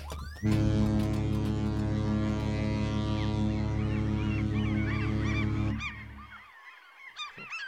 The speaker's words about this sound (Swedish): Härligt att höra lite måsare. Ja, det är riktig skärgårdsfeeling.